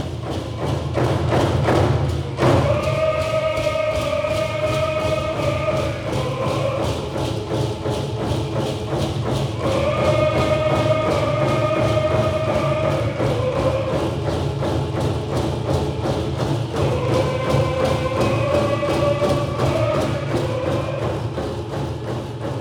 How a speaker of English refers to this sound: The drumming, singing, and dancing go nearly 24 hours on many of the days of protocol.